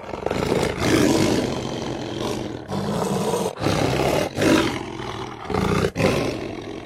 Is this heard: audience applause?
no